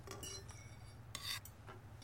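Dishes and cutlery clink and scrape in an apartment after dinner, with a few bright metallic clatters over a steady low hum.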